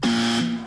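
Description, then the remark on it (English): A single loud buzzer sound effect, a harsh sustained tone lasting under a second, with no talking over it. “Now, now, now is a good time to introduce the buzzers that we will all be using.”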